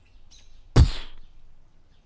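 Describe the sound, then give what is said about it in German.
A faint bird call, then a sudden loud burst of flapping wings that quickly scatters and fades away as a flock of ravens takes off at once, scattering in all directions. There is no talking. “Und die Hexe zerfiel in einen Schwarm Raben die schlagartig in alle Himmelsrichtungen sich verteilt.”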